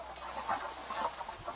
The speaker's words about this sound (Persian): این صدایی که میشنوید صدای رگبار بارونه